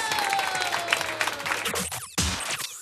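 An audience claps and cheers in a steady, dense burst of applause lasting a few seconds, with a brief dip before it swells again; a faint high tone lingers underneath.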